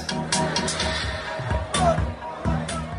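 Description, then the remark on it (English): Lively crowd noise at Mzoli's, an outdoor barbecue restaurant in Guguletu that turns into a block party on weekends, on a Saturday afternoon, with huge crowds of young people eating, drinking and dancing: dense overlapping chatter and voices with bursts of louder calls, a steady busy hubbub throughout. “It's Mzoli's, an outdoor barbecue restaurant that basically turns into a block party on weekends.”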